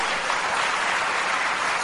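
An audience applauds a woman in the crowd, a dense wash of many hands clapping steadily at an even, fairly loud level for a couple of seconds with no voices standing out.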